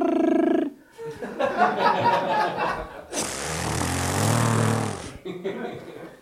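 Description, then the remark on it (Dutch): A voice imitates the buzzing of a military drone: a short steady nasal hum, some choppy voiced sputtering, then a longer raspy, hissing buzz that cuts off abruptly. “Dat zijn drones, hè?”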